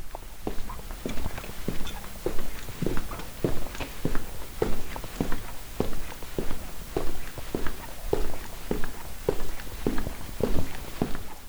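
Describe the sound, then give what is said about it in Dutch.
Steady footsteps walking at an even pace, each step a crisp impact repeating roughly twice per second throughout, with no talking. “Oortjes in en stappen maar.”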